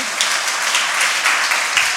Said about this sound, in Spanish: Un aplauso, por favor, a los que ya se comprometieron a esto.